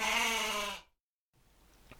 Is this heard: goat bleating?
yes